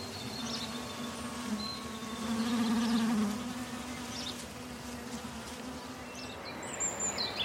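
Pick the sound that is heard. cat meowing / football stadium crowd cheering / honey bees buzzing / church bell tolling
honey bees buzzing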